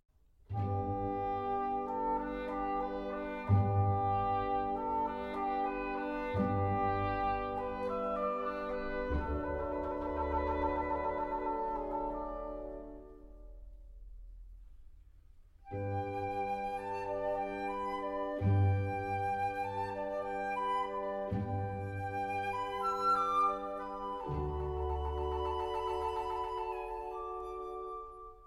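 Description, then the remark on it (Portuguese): A pastoral cor anglais (a lower oboe) solo, in a section depicting the rustic call of the cows, sings over soft, sustained orchestral chords, in two long melodic phrases separated by a brief pause, at a steady moderate volume with no voices. “terceira parte é o rústico chamar das vacas, com o seu solo bucólico de corne inglês, um oboé mais grave.”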